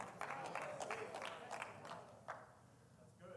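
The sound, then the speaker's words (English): A handful of scattered hand claps from an audience during a sermon, sparse and uneven, popping out over a soft bed of crowd murmur before trailing off into near quiet. “Wow, boy, I, have only got two hand claps out of this congregation, but it's the truth.”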